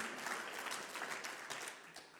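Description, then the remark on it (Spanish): A crowd at a worship service applauds the Lord steadily, a dense wash of many overlapping claps holding at an even, fairly loud level with no voices heard. “Aplaudí donde estás, Señor.”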